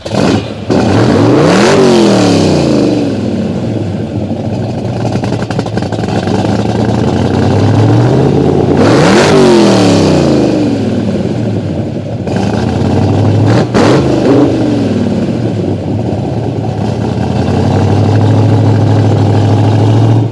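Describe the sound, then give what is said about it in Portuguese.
A De Tomaso Pantera sports car's V8 engine revs hard and loud several times, rising and falling in pitch between throttle blips, with a deep rumbling idle in between. No one speaks. “Quem não entendeu a relação entre Mario Andretti e esse carro, que o carro é um, é um De Tomaso Pantera.”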